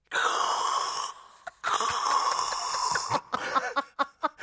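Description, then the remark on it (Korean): A voice imitates a dental suction tube: two long, breathy, slurping hisses with a gurgling rattle, followed by a few short sputtering bursts. “일단 석션.”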